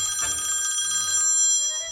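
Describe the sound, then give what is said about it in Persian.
A mobile phone rings with a bright, shimmering electronic tone that pulses rapidly and steadily. It is fairly loud, and no one speaks. “شوهر رو خاموش کن این موبایل دیگه درست نیست”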